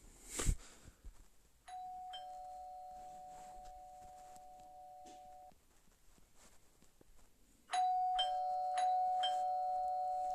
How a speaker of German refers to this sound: boah, Junge, jetzt reicht's, jetzt klingel nicht so rum, ey.